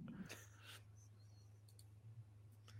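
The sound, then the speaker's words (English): A few soft, irregular clicks of typing a chat message on a keyboard, spaced out over a steady low electrical hum. They sound faint, with no talking. “Sorry, just typing in chat.”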